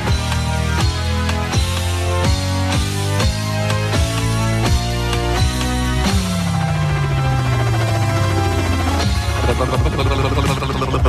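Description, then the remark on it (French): A voice imitates a helicopter on France Bleu radio: a loud, steady chopping pulse beats at a quick regular rhythm like helicopter blades, over dense musical tones, then a long whooshing pitch slides downward before the beating returns. “Ça c'est le bruit de l'hélicoptère.”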